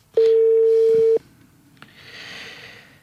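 A single steady telephone ringing tone sounds loudly for about a second as a call is placed, followed by quiet line hiss and a faint click, with no one speaking.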